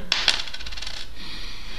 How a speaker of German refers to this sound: ich rubbel immer nur mit der kleinsten Münze, die ich habe